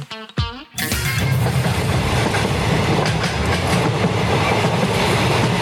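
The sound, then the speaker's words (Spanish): After a brief tonal blip, a passenger train rolls steadily along the tracks, a loud, continuous rumble with a faint clickety-clack of wheels running throughout. “Oye, muy bonito este tren.”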